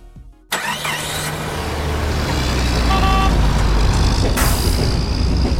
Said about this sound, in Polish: To zapraszamy po dżinglu.